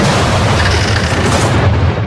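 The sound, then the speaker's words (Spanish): A violent storm tears at a rooftop TV antenna: a loud, continuous roar of rushing noise over a heavy, booming low rumble, unbroken for about two seconds, with no voices. “La tormenta Juana destrozando tu antena suena así”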